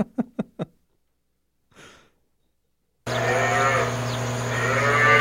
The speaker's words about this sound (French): Il y a des bruits de vaches. Non, c'est des moutons.